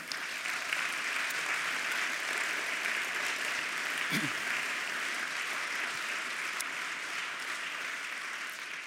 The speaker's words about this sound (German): Das wäre ein Applaus wert für unsere Mitarbeiter.